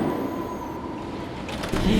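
Steady low rumble of a moving S-Bahn commuter train carriage, a continuous droning hum with a faint high whine running through it, growing a little louder toward the end.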